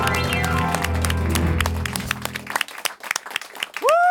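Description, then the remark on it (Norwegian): A studio audience breaks into dense applause and scattered cheering over a fading musical chord, the clapping thinning into sharp individual claps before a rising whoop or whistle near the end. “Som dere hører, så har vi live-publikum i studio.”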